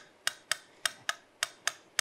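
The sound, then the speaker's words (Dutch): Crisp metronome ticks speeding up to a brisk pace with a slight long-short lilt, clear against a quiet background, with no voices. “Nou, op het moment dat ik in die slip raakte, ging die metronoom van gewoon tikkend in feite opeens heel veel sneller tikkend.”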